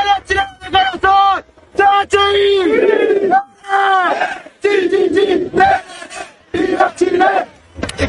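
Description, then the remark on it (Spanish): A man shouts loudly in long, strained bursts over the steady roar of a large stadium crowd, his cries rising and falling with short pauses between them. “Mirá, mirá, acá hay, creo que tengo, hay un video que encontré que el flaco está en un estadio.”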